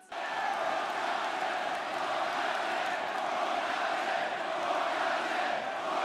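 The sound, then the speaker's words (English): A large crowd chanting "Hookhausen" together, a loud, dense wall of many voices that holds steady for about six seconds with no pauses and no single voice standing out. “The crowd chanting Hookhausen already made their own shirts.”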